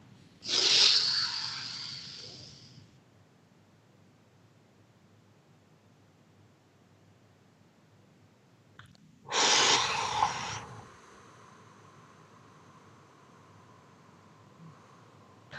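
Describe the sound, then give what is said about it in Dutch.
Deep, slow breathing in a breathing exercise of four counts in and eight out: a long, loud, airy breath, a long quiet pause, then a second, shorter rushing breath that trails off with a faint, steady whistle-like hum. No talking. “Oké, dus we ademen in, verveer.”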